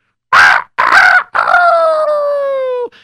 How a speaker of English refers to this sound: The next morning, when the rooster crowed,